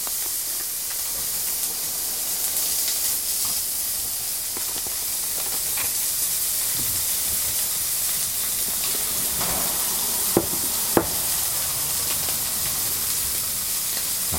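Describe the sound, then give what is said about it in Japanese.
Pork belly sizzles steadily in a hot frying pan on a gas stove with vegetables, a dense hiss with scattered crackles and pops, fairly loud, with a couple of sharper snaps near the end and no talking. “結構波形見てるとこの焼けてる時のこのパチパチって音でかすぎるかな俺の声よりもでかいもしかしてちょっとまあしばらく音割れぐらいにはなってないと思うので声の方が聞きづらいかもしれないけどこのままいきます”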